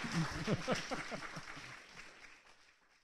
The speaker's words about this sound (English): Yeah, they're so good about clapping. Look at this.